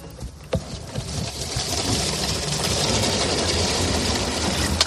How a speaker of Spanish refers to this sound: Este es el agua que está ahora mismo eh, ofreciendo el camión cisterna.